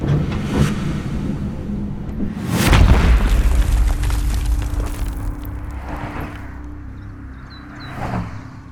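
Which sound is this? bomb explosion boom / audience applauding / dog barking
bomb explosion boom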